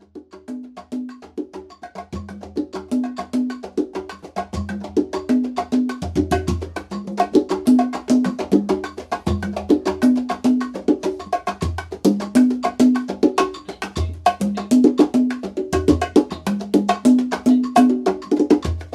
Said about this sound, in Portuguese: Quando você ouve essa música tão declarada, desse ritmo, você não consegue ficar com o, o esqueleto parado, né? Você sempre está se movimentando. E esse ritmo resulta então dessa batida de origem cubana e esses ritmos conhecidos como caribenhos,